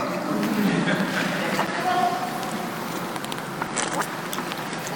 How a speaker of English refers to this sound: After I chew this mint, so I don't choke to death in front of you.